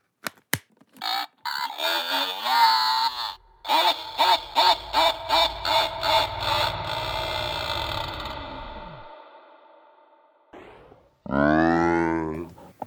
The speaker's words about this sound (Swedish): Jag hade en sån här plastpumpa som om man trycker på den så säger den Happy Halloween.